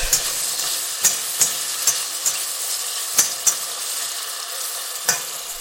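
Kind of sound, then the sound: food or drink, onions frying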